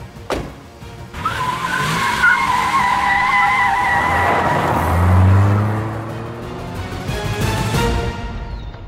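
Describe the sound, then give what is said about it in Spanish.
A car skids with a sustained tire screech, then its engine roars and fades as it drives off, loud with no voices. “Oye, ¿te has fijado? Creo que el coche no tenía conductor.”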